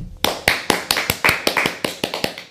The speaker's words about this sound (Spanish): Vamos a darle un fuerte aplauso al Eterno.